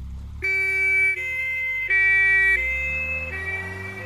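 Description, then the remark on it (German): An ambulance siren wails loudly, its two-tone pitch alternating steadily over a low rumble of traffic, with no voices. “Seit dem Fieberkrampf unseres Sohnes höre ich diesen Sound nochmal ganz anders.”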